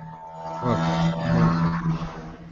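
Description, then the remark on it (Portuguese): A motorcycle speeds past, its engine a steady, buzzing roar that surges loudly through the middle of the moment and then eases off as it goes by, with no one speaking. “Passou uma moto muito rápida aqui.”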